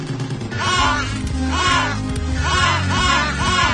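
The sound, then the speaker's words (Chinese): A noisy chorus of penguin calls, harsh braying cries repeating and overlapping in waves over a steady low rumble, loud throughout with no one talking. “第二个，第二个，听起来是企鹅的声音呢。”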